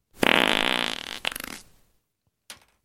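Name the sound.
fart sound effect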